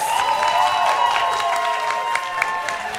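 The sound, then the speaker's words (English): An audience applauds steadily for about three seconds, voting by applause on giving period cramps to Marco Rubio, a dense crackle of clapping with a few scattered whoops and cheers rising above it, holding at an even, fairly loud level throughout. “So, by round of applause, would you like to give your period cramps to Marco Rubio?”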